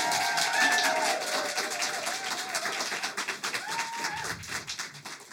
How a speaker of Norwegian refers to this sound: Dere må legge i jøss yes, akkurat hva dere vil, men eh, vi stemmer med applaus.